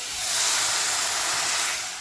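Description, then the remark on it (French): A steady, loud hiss of steam as plain water is poured onto rice cooking in a hot pan for risotto, sustained for about two seconds, fading slightly at the end, with no voices. “c'est le bruit de l'eau.”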